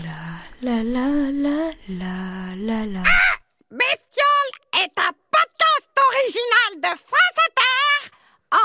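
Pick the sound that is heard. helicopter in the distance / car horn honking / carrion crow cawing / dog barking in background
carrion crow cawing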